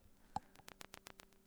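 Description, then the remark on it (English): A short electronic beep from a battery-powered vaporizer as it heats, followed by a quick, even run of faint clicking pulses over a low steady hum, with no one talking. “that's the sound of our vaporizer. If you're just listening to us and you hear that sound, that's when we're getting high.”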